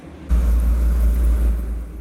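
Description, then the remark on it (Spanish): Steady roar of traffic on the Las Américas highway with cars passing, a loud low rumble that swells in after a brief quieter moment and holds throughout, no voices. “En esta autopista Las Américas, en la mayoría de los casos, los accidentes de tránsito son provocados por la alta velocidad en la que manejan muchos conductores”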